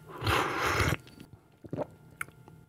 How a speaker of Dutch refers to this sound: Ik moet slurpen, dus mensen die net inhaken, er moet geslurpt worden.